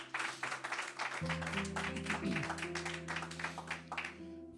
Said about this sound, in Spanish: Si usted lo cree, den un aplauso fuerte. Vamos, ayúdeme ahí en casa.